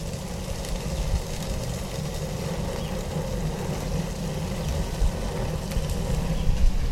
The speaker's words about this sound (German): Jetzt können wir das anzünden. Jetzt knackst das Feuer so.